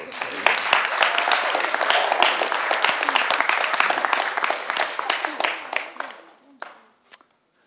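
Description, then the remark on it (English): A church audience applauds together after a prayer for a young man heading to university to study architecture, in a sustained burst of dense, steady clapping that fills the space, then gradually thins out and fades, with a few scattered final claps near the end. “Give him a round of applause.”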